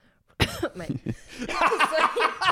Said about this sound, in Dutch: Nee. Hoesten in iemands gezicht. In de micro.